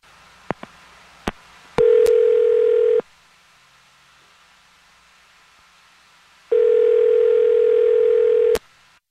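A few sharp clicks from a handset, then two long, steady telephone tones separated by several seconds of near silence, like a phone line ringing on the other end. Loud, with no voices.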